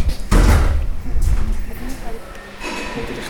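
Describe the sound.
A door swings shut with a heavy, abrupt thud, followed by a brief rattle and settling noise, with muffled voices and background hum underneath.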